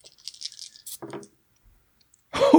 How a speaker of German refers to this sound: Okay, dann würfeln wir nochmal.